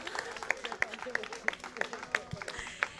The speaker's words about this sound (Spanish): Bien, un aplauso.